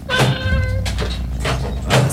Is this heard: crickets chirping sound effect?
no